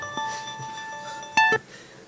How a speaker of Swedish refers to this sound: Nu ringer det här så att jag... Då avbryter jag.